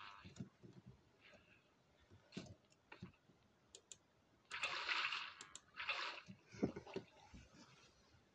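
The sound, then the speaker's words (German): Video game water splashing in two short, rushing bursts as the player heads back out through water, surrounded by scattered light clicks and taps at a moderate level. “So, jetzt hier raus wieder mit Wasser.”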